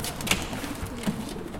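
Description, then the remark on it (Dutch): Soft, low cooing of the speaker's own pigeons, a few murmuring coos spread over a second and a half, with faint rustling and brief brighter clicks mixed in. “Hier zijn de biestjes, Hier zijn mijn dufjes.”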